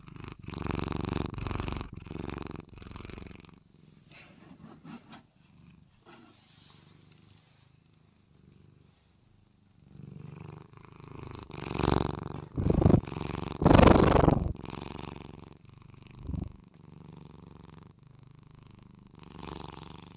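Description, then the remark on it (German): A cat purrs steadily, a low rumbling that swells and fades with each breath, growing louder and rougher in the middle before settling back into a soft, continuous hum. “Müsst jetzt einfach nur dieses Schnurren und entspannen.”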